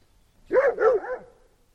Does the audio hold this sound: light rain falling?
no